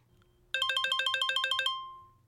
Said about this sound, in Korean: 그리고 그날 저녁 전화벨이 울렸습니다.